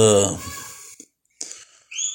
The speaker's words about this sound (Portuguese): Nossa, velho, puta que pariu, passarinho que tá foda.